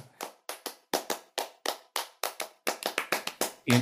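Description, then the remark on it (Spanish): Sharp hand claps in a lively syncopated rhythm, about twenty crisp strikes over a few seconds, grouping and speeding up toward the end in a flamenco palmas pattern, with no talking. “Por ejemplo, los palmoteos que, escuchas en la gitanesca como tal, que eso de Billo lo hacemos por natura.”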